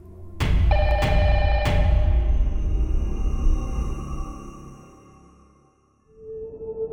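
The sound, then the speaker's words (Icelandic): An old-style telephone bell clangs loudly in a few quick strikes as the phone rings again, the call coming from the building's basement; its metallic ring lingers and slowly fades before a low steady tone comes in at the end. “Þremur mínutum síðar ringir símin aftur og aftur sér hann að símtalið er frá kjallara húsins þar sem hann var.”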